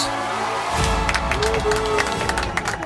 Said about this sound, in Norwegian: Det er sånn fin, for det er, det er sånn fin applaus. Sånn litt sånn koselig ja, ja.